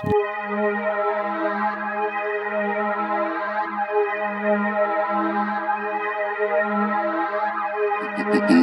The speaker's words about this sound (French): C'est un freestyle de ce rappeur marseillais